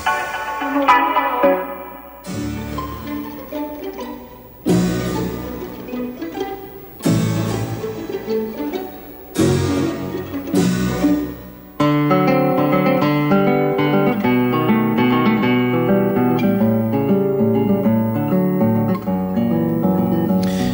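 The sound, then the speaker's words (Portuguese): Orchestral concert music, Suíte Argentina by Eduardo Falu performed by the Orquestra Sinfônica da USP, plays alone with no voices. Short loud phrases are separated by brief breaks at first, then the music settles into a continuous, steady passage of sustained, layered notes. “Chegamos ao final da edição de hoje do programa Cultura na USP ao som de Suíte Argentina de Eduardo Falu, parte do programa do concerto deste sábado da Orquestra Sinfônica da USP.”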